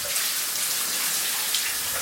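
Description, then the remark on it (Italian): Steady rushing water of a shower running in a bathroom, flowing and bouncing off the bathroom walls, a continuous bright hiss with a faint patter that stays even throughout, without any voices. “Le docce sono silenzio scrosciante, trovo nel suono dell'acqua che scorre e rimbalza sulle pareti del bagno l'eco dei pensieri che mi tengono sveglio di notte.”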